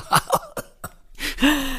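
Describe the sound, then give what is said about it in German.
A voice imitates an exclamation turning into a raspy cough, like heavy smokers whose laughing turns into coughing: four quick, harsh hacking bursts, followed by a drawn-out, strained vocal groan as the fit trails off. “ein Ausruf, der dann in so einen Husten überging. Hm. Wie so bei starken Rauchern, die lachen dann immer und da geht's in Husten über.”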